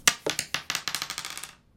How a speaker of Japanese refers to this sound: いきましょうか、じゃあサイコロ振らせていただきますじゃあいったいきます1投目